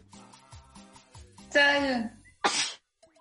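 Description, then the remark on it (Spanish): A single loud sneeze: a rising, drawn-in vocal 'ah' followed by a sharp, breathy burst. Soft, indistinct voice sounds come just before it. “Salud.”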